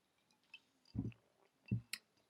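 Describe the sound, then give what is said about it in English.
Two wet gulping sips of ice water with a touch of white wine from a glass, with a bright little clink like ice just after the second, otherwise quiet with no talking. “Uh, this, just in case you're wondering, is ice water with a touch of white wine just to give it a bit of taste.”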